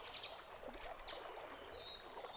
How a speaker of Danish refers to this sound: Nede på stranden slår små bølger ind på land. Geo står og kigger på bølgerne, mens han lytter til fuglene